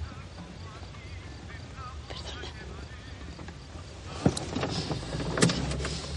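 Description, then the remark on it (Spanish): A car starts up with a couple of sharp mechanical clunks as Julio, in the driver's seat, sets off with a passenger; its engine rumble grows louder and steadier as it pulls away, over a low, continuous hum. “Julio arranca y se van.”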